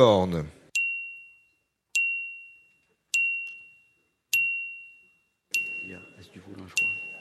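A bright bell dings six times at an even pace, each strike sharp and ringing out before fading; a voice is heard briefly at the start and people talk under the final dings.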